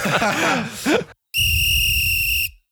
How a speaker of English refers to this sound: that, that that sound you hear is the extra time whistle. that is the extra segment on our show where we talk a little bit longer for extra time.